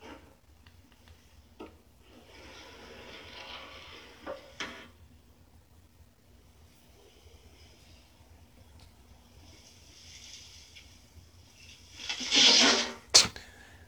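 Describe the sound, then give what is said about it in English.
A door is opened and shut several times by a man who keeps playing with it, with scattered clicks and soft knocks, then a louder rattling bang near the end, against a quiet faint hum with no talking. “He just keep playing with this door.”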